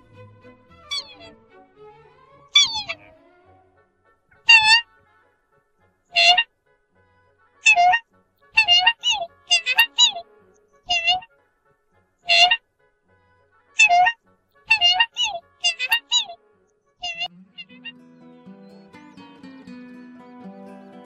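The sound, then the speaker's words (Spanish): A bird sings a series of loud, clear, whistled phrases, short bursts repeated at fairly steady intervals about a dozen times, with faint background sounds creeping in near the end. “Ahora escucharemos el canto de esta especie.”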